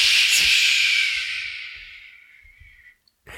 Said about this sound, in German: Hören Sie das? Bio. Zisch.